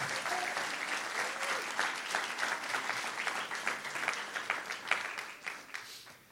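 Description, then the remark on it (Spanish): An audience breaks into loud, sustained applause for the Lord, a dense wash of many hands clapping that holds steady for several seconds before tapering off slightly at the end. “¿Alguien le da un aplauso fuerte al Señor por eso?”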